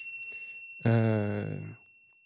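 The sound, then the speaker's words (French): An electronic chime sounds once in an airplane cabin, a loud, bright ding-dong tone lasting about a second before fading, announcing a call from the flight attendant, with no one talking. “Euh, il est dans son avion et une petite musique retentit.”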